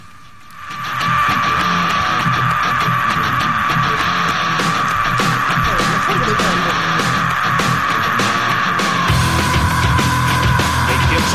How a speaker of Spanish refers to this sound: segundos de grito. Yo que sé, grito. 17, los tengo contados. Madre mía, sigue, sigue.